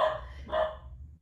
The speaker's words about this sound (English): that's my dog, the little one, Big Mark.